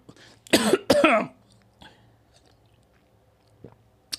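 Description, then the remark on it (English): Two loud, harsh coughs in quick succession, raspy and wet-sounding, from someone who got water in their throat, followed by a faint throat noise and a brief rough catch at the end. “I got water in my throat.”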